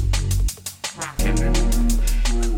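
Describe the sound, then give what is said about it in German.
Garage house music plays loudly, with a steady pounding kick, thick sustained bass and bright hi-hats; the bass briefly drops out for a moment before the full groove kicks back in. “Das ist der Sound von ungefähr jeder After Hour, die ich hier in meinem Leben besucht habe.”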